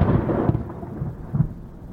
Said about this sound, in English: And what happens on race day in Brussels? downpours.